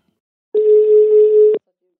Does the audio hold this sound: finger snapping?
no